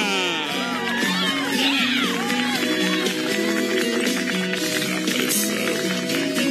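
A rodeo grandstand crowd at a Brasil Rodeio show in Brazil applauding and cheering, a steady dense roar of clapping mixed with shouts, whoops and whistles that stays loud throughout.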